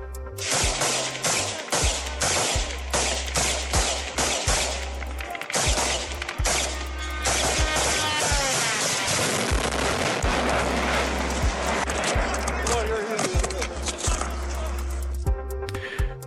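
Loud bursts of rifle fire crack repeatedly as a group of police officers in black on a parking lot in Kyiv, Ukraine, shoot at a kamikaze drone whining overhead; the drone crashes and explodes on the ground amid continued shooting and chaotic background noise.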